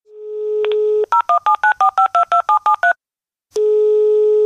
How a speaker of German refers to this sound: Ein Anruf in Thüringen.